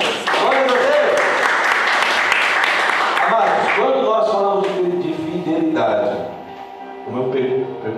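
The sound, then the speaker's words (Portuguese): An audience bursts into loud, dense applause, a steady wash of many hands clapping for several seconds, then thinning out as voices rise over the last of it. “Em nome de Jesus. Aplausos.”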